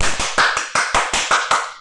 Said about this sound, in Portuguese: Eu, eu não sei editar podcast, mas se eu soubesse, eu colocaria um barulhinho de palmas, então eu mesmo fazia minhas palmas.